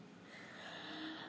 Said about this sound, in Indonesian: malam yang dipenuhi dengan suara kodok ini